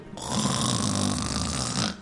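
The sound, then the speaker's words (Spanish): A person imitates a snore with one long, rattling, guttural breath lasting about two seconds, fairly loud, with no talking around it. “Roncar.”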